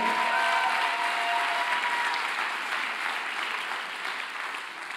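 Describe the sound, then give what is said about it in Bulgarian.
An audience claps steadily for about five seconds, a dense, even patter of many hands that stays loud throughout and fades only slightly toward the end, with a few brief tonal notes in the first half. “О, хайде, ръкопляскай, като че сваляш небето.”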